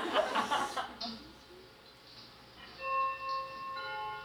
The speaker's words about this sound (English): Okay, that's first quarter, fine. Second quarter. I assume this chiming is built for like an entire town and not like a house.